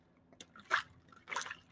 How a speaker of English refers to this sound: This come food in a cup right here. I gotta blow bubbles. This how I mix it.